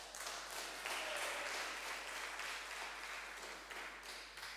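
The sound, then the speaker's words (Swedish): An audience applauds for a woman after a prayer, a dense wash of many hands clapping at a fairly even level throughout, with a faint voice briefly audible beneath the clapping. “Vi ger henne en applåd.”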